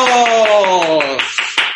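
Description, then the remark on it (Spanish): Rhythmic hand clapping runs beneath a sustained, slowly falling voice, then ends with three sharper, separate claps after the voice fades. Moderately loud throughout. “¡Aplausos!”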